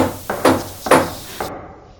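Four firm knocks on the wooden door of a hut, uneven in spacing, fairly loud, with a short ring after each. No one speaks.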